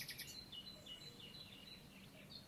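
Birds chirp softly and continuously, a flurry of high, bright tweets overlapping against a low, steady ambient hum, with no one speaking.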